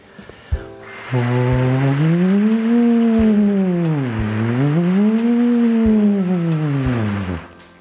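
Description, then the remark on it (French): A single voice does a vocal exercise, sustaining a loud, continuous tone that slides smoothly up and down in pitch twice as small siren-like glides, with no words spoken. “Pour les plus courageux d'entre vous, mettez encore la vidéo une nouvelle fois en pause et refaites trois fois l'exercice en faisant comme ça des petites sirènes.”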